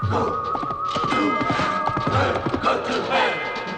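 Horse hooves pound a track at a gallop, a fast, steady run of close, loud thuds, with a high sustained whinny-like tone and busy background noise running underneath.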